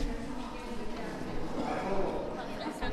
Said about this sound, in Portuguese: Para lá dos grilos a cantar, há um burburinho que se ouve no regresso ao Centro Social de Bicos